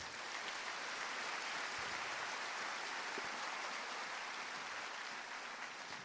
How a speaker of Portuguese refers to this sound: Quem pode dar uma salva de palmas para Jesus aí?